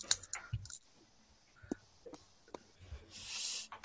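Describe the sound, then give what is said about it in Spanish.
Scattered keystrokes on a fairly large computer keyboard: quiet, irregular clicks and taps, ending in a short breathy hiss. No one speaks. “¿Y este teclado tiene alguna característica así especial, algo que destacar?”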